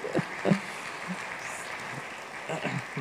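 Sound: audience applauding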